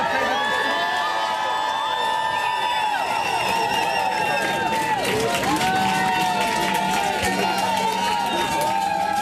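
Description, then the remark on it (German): A loud crowd at a welcome reception for the 'Maestro', arriving with the Australian Open trophy, cheers and shouts continuously, many excited, high-pitched voices overlapping in a dense roar, with screams and whoops rising and falling and swelling further midway through. “Und dann ist es laut geworden.”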